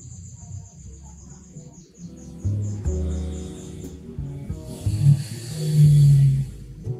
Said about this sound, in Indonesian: Wow ya Allah suara suara motor I'm sorry